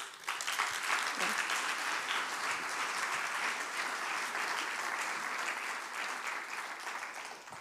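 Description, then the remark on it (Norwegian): An audience breaks into sustained applause, a dense, steady patter of many hands clapping that holds at an even level for several seconds before tapering slightly at the end. “Gi en klapp.”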